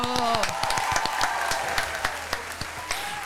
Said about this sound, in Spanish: Un agradecimiento y un aplauso para nuestros amigos de Movix.